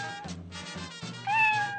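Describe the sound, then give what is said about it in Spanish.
A kitten stuck in a tree meows repeatedly in short, plaintive calls, fairly clear, ending with a louder, drawn-out, high-pitched cry. No one is talking. “Mira, mira en aquel árbol ese gatito que no se puede bajar.”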